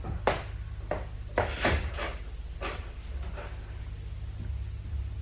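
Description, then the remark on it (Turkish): A door is opened and shut with a series of sharp wooden clacks and thumps in the first few seconds, over a steady low room hum. “Dadıcım, kapıya bakar mısın Elimdeki işi bırakamıyorum Tabii ya.”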